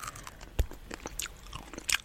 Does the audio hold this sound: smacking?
yes